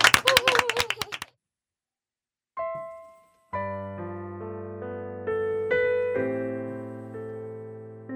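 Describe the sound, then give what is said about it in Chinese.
A short, loud burst of audience applause welcoming a vocal music student about to perform, dense clapping for about a second, then it cuts off into silence before sustained piano-like tones begin playing. “好，我们快听一下，OK，掌声欢迎。”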